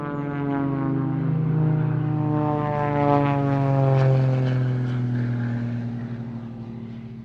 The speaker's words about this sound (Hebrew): בכל לילה שמענו מטוסים חולפים בשמיים, מחפשים מטרות.